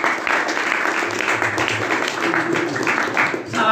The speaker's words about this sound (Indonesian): tepuk tangan buat bapak